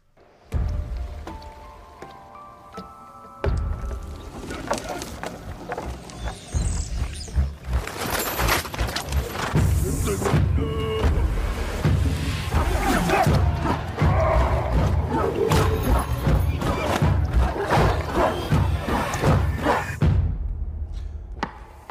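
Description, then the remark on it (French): A TV series opening theme plays: a soft tonal intro for a few seconds, then a loud, dense, full-bodied section with heavy low thumps and rumbling effects that cuts off near the end. “Alors, ce que vous venez d'écouter, avant que je vous parle de ce que je vais vous parler, c'est le générique de la série”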